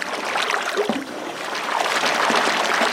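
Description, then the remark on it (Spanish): A steady, loud mechanical roar fills the space, the running engine of a sugarcane mill with a hissing, rushing texture layered over it, in sync with steam from the pans where the sugarcane juice boils; continuous with no voices. “El motor y sus sonidos se sincronizan con el vapor de las pailas donde hierve el dulce de la caña”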